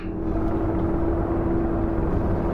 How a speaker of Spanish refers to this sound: ¡Es un helicóptero! ¡Vienen a sacarnos de aquí!